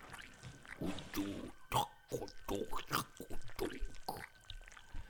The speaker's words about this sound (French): L'ayant pris, le tigre se dirigea vers la cuisine. Peu de temps après, les enfants entendirent mâcher durement quelque chose.